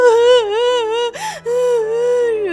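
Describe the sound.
A voice imitates a duckling crying: a high, quavering wail held for about a second, a brief catch of breath, then another long wobbling sob, fairly loud.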